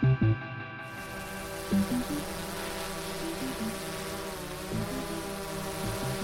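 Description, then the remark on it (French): A drone buzzes steadily in flight, a dense, whining hum with stacked harmonic tones that waver slightly in pitch, preceded by a couple of brief low thumps at the start. No one speaks. “Depuis plus de 20 ans, Philippe Grandjean pilote des drones pour l'université Lyon 1.”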